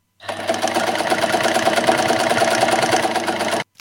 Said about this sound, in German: Denn Singers Nähmaschine ist die beste.